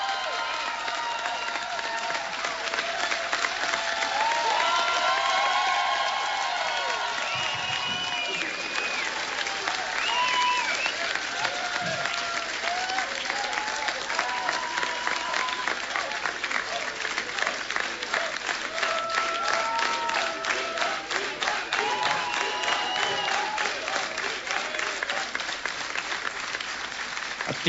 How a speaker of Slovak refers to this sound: týmto potleskom sa zároveň lúčime so všetkými poslucháčmi Rádia Lumen. Ďakujem im za to, že dnes večer boli s nami. Tento potlesk patrí vám všetkým. Ďakujeme.